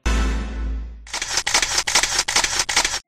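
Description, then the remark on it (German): After a brief low rumble, a camera shutter fires in a rapid burst of about six loud, crisp mechanical clicks, evenly spaced like a motor drive, with no voices. “Und es hat Klick gemacht.”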